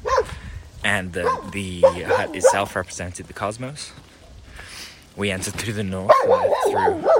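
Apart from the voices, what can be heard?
dog barking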